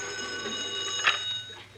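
An old-style telephone bell rings steadily with a bright metallic jangle, fairly loud, heard on its own with a faint hum underneath.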